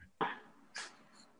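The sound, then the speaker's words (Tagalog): A dog makes two short, sharp vocal bursts about half a second apart, followed by a faint high whine, fairly quiet, with no talking. “Sorry, ang ingay ng aso ko ata.”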